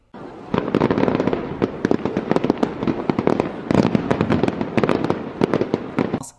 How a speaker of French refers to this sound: Tous les 14 juillet, c'est les feux d'artifice. On a des spectacles un peu partout en France euh, qui vont finalement commémorer la prise de la Bastille qui s'est passé le 14 juillet 1789